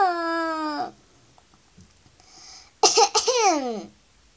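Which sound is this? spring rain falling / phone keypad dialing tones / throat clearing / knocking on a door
throat clearing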